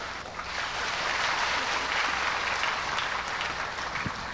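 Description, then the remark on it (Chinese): Sustained applause from a large crowd welcoming Master Ching Hai to the venue, a dense steady wash of clapping hands that holds at an even, fairly loud level throughout, with no voices standing out above it. “我们再一次以最热烈的掌声，欢迎青海大师莅临会场。”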